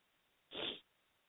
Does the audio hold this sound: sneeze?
yes